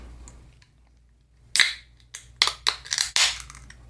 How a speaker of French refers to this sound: c'est pas loin d'être ma préférée parmi les bières blanches. Bon, en même temps, je, je n'ai pas bu 8500 bières blanches dans ma vie, mais alors attention, je vais l'ouvrir.